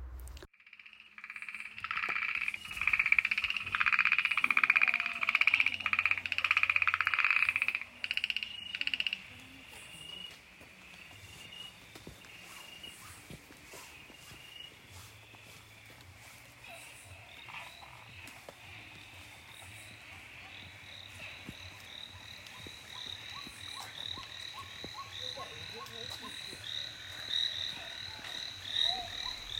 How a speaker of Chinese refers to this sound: 然后我们也想把这声这阵蛙鸣送给大家，让大家也提前感知一下即将而来的充满 对这 生意 个春天的气息。 池塘里的那种生机感。